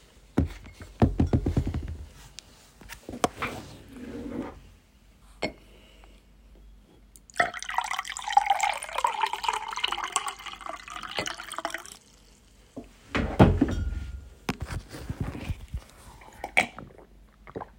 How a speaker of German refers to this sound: Warte kurz. Ich fülle mir ein bisschen Wasser ein.